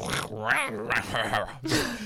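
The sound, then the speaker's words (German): A person imitates a dog with several short, voiced barking and whining sounds in quick succession, fairly loud. “Repertoire für jeden Hund, so ein”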